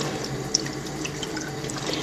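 Water runs steadily from a bathroom tap, a continuous hiss of moderate loudness with one brief bright tick early on. Nobody speaks.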